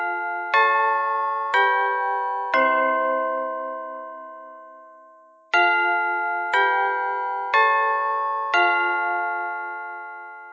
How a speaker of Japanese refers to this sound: おや、鐘が鳴ったようですね。えー、では、えー、ここで今日の授業を終わりにします。